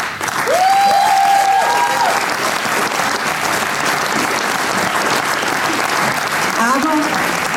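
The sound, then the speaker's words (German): Sustained, dense audience applause at an awards evening with ten nominees and live pitches fills the whole clip at a steady loud level, with a few whoops and cheers rising briefly above the clapping near the start and end. “Also ich finde allein das ist schon Applaus wert.”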